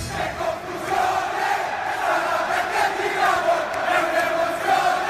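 A large crowd of AC Milan football fans sings a chant together live in a stadium, in a sustained, wavering melody, with the dense roar of many voices blending into a continuous wash of sound.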